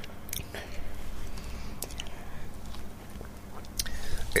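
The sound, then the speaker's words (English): Someone slurps a chocolate Nesquik drink from a cup, with a few short, wet sips and mouth noises over a low, steady background hum. “So have a slurp on that, and let me know what you think.”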